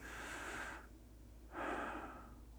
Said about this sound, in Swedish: Och så kanske upprepa detta här under en minut. Så man andas in.